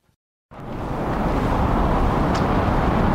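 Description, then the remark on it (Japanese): After a brief silence, a loud, steady roar of traffic rushes in and holds, a broad rumbling wash of cars passing overhead on the Kyushu Expressway, heard from underneath near the Mizuki site in Dazaifu, Japan, with no talking. “えー、上を車が通ですね”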